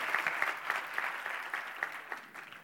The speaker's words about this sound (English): So, I mean, you have a wonderful worship team. Could you give them a big round of applause just so that?